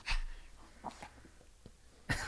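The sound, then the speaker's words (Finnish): A dog named Laki snorts and wheezes, with a loud raspy burst at the start and another at the end, and soft snuffling and small clicks in between. “Siinä oli Lakin niin. kommentit asiaan.”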